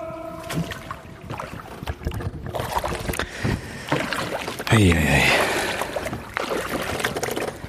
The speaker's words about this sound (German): naja, also ganz konkret sind wir eigentlich in Lübbenau im Spreewald. Und jetzt haben wir, jetzt sind wir auf einem Kanu oder ist es ein Paddelboot? Ich weiß nicht.